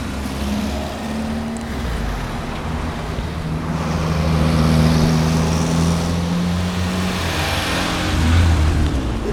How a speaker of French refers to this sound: Et on roule dans quelle voiture là Une Renault Colorale, une dépanneuse Renault Colorale de 1953 qui a été achetée neuve par Renault à Nice en 1953 et qui a eu deux propriétaires depuis. Euh, elle a fait que du dépannage.